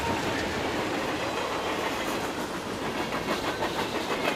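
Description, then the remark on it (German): A freight train rushes past a small village railway station at night, a steady loud roar of wagons with faint rhythmic clatter from the wheels, continuous throughout with no voices. “Denn nachts zwischen zwei und drei, da rauschen dort nur noch Güterzüge vorbei.”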